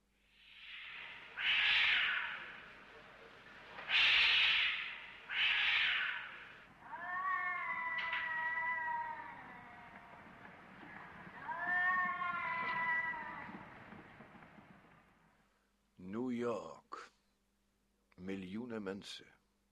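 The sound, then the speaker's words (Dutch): Cats caterwaul and meow at three in the morning: a few harsh bursts give way to long, wavering yowls that rise and fall, followed after a brief pause by two short, sharp meows. “En elke nacht, of liever elke ochtend om drie uur, zijn er katten.”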